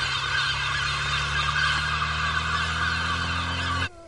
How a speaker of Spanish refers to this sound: Se encuentra con una bandada de pájaros que vuela prácticamente a ras de suelo. Se apartan a medida que el vehículo se acerca.